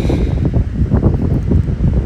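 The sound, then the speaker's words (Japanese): Steady, rushing roar of wind buffeting the microphone at the sea, with a broad wash of ocean waves underneath and gentle swells in loudness; no voices, just continuous outdoor noise. “今日海でいようかなと思いながら来ましたでまた場所が変わるとあの気持ちも変わるのであと波の音と呼吸の音を合わせながらメディテーション呼吸法をちょっとやってから帰ろうかなと思ってます”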